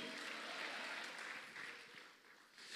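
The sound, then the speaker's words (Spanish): A church audience applauds for the Lord in a dense, steady wash of clapping from many hands, sustained throughout and dipping slightly near the end, with no one speaking over it. “Vamos, déselo fuerte al Señor a su nombre.”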